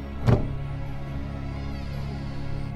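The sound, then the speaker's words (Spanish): A bedroom door opens with a single sharp click of the latch near the start, then a low, steady hum lingers in the otherwise quiet room. No voices. “La primera cosa que distinguí me sobresaltó fue el sonido de la puerta de la habitación abriéndose.”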